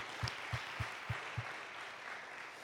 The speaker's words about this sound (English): I think what really deserves the applause of those 275 churches, we consider and know it to be a fact Grace Church yes. is vital yes. to the North Carolina Assemblies of God, and we applaud you.